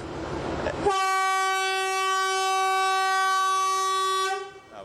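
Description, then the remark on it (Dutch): A loud, sustained train horn blast in Sri Lanka, where people walk across the tracks, holds one steady harmonic tone for over three seconds, preceded by a brief burst of rumbling station noise and then fading out. “Iedereen liep over het spoor, iedereen cross, kras, harde toeters, nou je hoorde er net al een”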